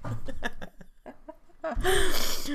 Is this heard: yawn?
yes